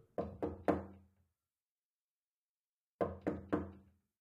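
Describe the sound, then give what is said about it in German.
Soft, careful knocking on a wooden bedroom door: a quick set of three raps, a pause of about two seconds, then another three, with no voices. “Nachdem sie zurückgekehrt war, klopfte sie behutsam an die Schlafzimmertür.”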